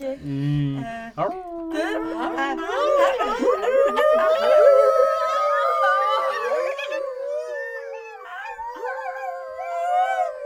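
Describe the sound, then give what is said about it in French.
Human voices imitate a wolf's howl, drawn-out wavering wails rising and sliding in pitch, sustained loudly for about ten seconds with overlapping tones and no talking. “On fait, les loups qui love.”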